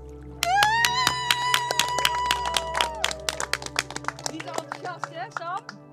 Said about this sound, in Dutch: Dus ehm, ik zou zeggen, eh, allereerst een heel groot applaus voor jezelf.